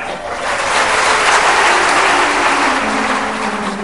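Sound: audience clapping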